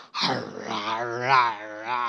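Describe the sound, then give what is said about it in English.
A person imitates a bear noisily chewing its prey, making a continuous, throaty growl for about two seconds that swells in the middle and again near the end. “he's chewing and he's chewing noisily, right?”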